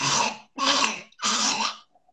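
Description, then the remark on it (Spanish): A small dog hacks out three harsh, raspy coughs in quick succession, loud, sounding as if it is choking or trying to clear its throat, with no talking. “¿Qué le está pasando? Se está ahogando.”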